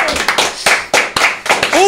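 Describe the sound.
An audience claps steadily in encouragement, a dense, bright patter of many hands with a few louder bursts, while a couple of voices chime in briefly near the end.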